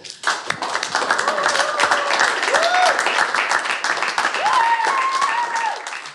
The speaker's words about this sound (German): Was Sie gerade hören, ist die gelöste und geradezu euphorische Stimmung bei der Aftershow-Party aller Mitwirkenden, welche die Sommersaison 2022 zu einem tollen Erfolg gemacht haben.